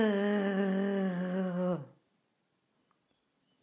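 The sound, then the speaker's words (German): A single sustained, voiced guttural German R sound produced in the throat, held for under two seconds with a slight rasp, followed by silence. “So, und jetzt geht es los mit dem R, das im Hals erzeugt wird.”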